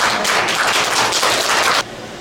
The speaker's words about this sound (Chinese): 哇，拍拍手！